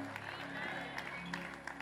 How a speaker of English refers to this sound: I believe you are clapping for the Lord Almighty, not me.